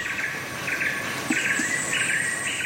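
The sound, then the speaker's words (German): Dense jungle ambience: a steady high insect drone with pulsing cricket-like trills, joined by a few brief bird chirps, all at moderate level with no one speaking. “Ich muss dann immer so grinsen und ähm, mache die Augen zu und fühle mich ehrlich gesagt sofort wieder im Dschungel.”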